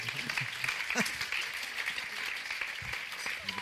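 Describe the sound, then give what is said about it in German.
An audience applauds steadily at the end of a church talk, a dense wash of many hands clapping at an even, sustained level throughout, with a few faint voices mixed in underneath. “Geben wir äh, awesome. unseren Applaus.”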